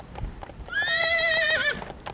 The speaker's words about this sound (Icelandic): Já, eða einfari. Bara ég og hesturinn minn.